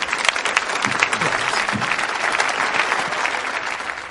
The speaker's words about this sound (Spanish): Un fuerte aplauso para Venga.